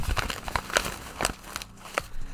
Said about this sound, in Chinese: 让观众听听这个熟悉的纸袋的声音。纸袋里面有几十张签，那每一张签呢都写着一个国家的名字。